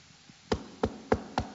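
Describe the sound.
Four firm knocks on a door, evenly spaced in a steady rhythm, fairly loud against a quiet background with no one talking.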